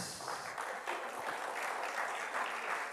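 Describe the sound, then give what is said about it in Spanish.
A crowd applauds all women for International Women's Day, dense clapping filling the whole stretch at an even, fairly loud level with no voices over it. “Un aplauso a todas las mujeres.”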